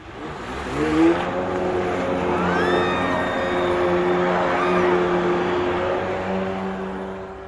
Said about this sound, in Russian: И еще левее раздается звук ускоряющегося водного мотоцикла с громко кричащей от восторга парочкой.